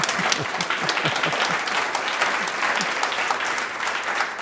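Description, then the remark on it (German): Steady audience applause: many hands clapping in a dense, even patter that holds at a constant level throughout, with no speech over it. “eigentlich, wären wir in einem katholischen Ambiente, gäbe es jetzt Applaus, sind wir hier weit davon entfernt.”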